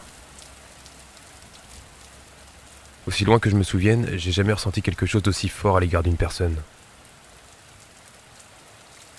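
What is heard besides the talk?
rain falling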